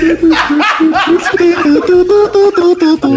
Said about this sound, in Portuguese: essa vinheta. Essa vinheta é boa, essa é maravilhosa. Essa é foda, essa vinheta.